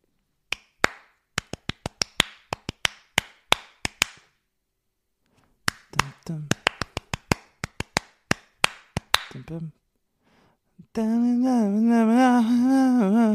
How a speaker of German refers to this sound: Ich tue etwas klatschen und du sagst, was es ist. Also. Achtung.